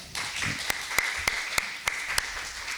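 An audience at a Lesebühne (stage reading show) applauds a musical guest in a steady, dense wash of clapping, with a few sharper individual claps popping out at fairly regular intervals above the crowd. No one speaks over it.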